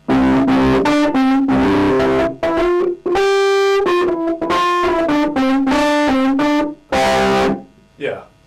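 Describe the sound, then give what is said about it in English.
A gritty, distorted analog Fender Rhodes electric keyboard played in a recording session plays a string of sustained, loud notes that shift in pitch and swell, with brief gaps between phrases and a trailing fade at the end. “Yeah this is the Fender Rhodes organ. It's kind of crunchy, yeah, and it's not it's not digital, it's analog, so.”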